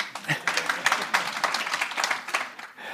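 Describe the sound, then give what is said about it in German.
A burst of spontaneous audience applause in agreement, many hands clapping densely and steadily for about three seconds at moderate loudness, with no voices over it. “Im spontanen Applaus schließe ich, dass das offenbar auf Zustimmung stößt.”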